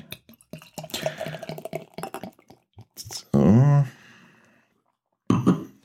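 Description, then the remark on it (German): Beer glugs and splashes steadily into a glass, a bubbling pour lasting a few seconds, followed by a brief spoken word and another short burst of sound. “Ja, also dann schenken wir jetzt mal.”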